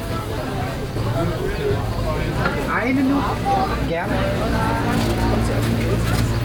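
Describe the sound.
Busy outdoor market chatter at the Winterfeldtmarkt in Berlin, with many overlapping voices and vendor calls blending into a steady din over a low rumble of traffic, while a voice exchanges a few brief words.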